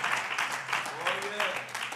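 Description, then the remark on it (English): A church audience at MPC claps their hands together in a dense, steady burst of applause lasting a couple of seconds, thanking God, with faint voices and a brief rising vocal cry mixed in. “Can you clap your hands and thank Him for what God has done for MPC for over 109 years?”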